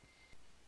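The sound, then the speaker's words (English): A faint, high-pitched electronic beep from a timer alarm set to check the fire for cooking ribs, a single short tone, with no one talking. “that is my alarm to go check the fire for the ribs.”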